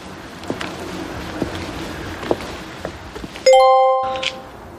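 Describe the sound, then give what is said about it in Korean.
A single bright chime rings out sharply after a few seconds of low background noise, its clear tone lingering briefly before fading. “어, 누가 띵 들어가고 끝난 줄 알았어요.”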